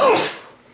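A single sharp sneeze bursts out, loud at first and then trailing off quickly into a soft, breathy tail.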